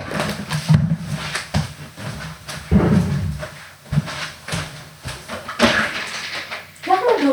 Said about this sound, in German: Ich frage mich gerade, was das ist. Ich glaube, da möchte ein Katzenkind wieder rein.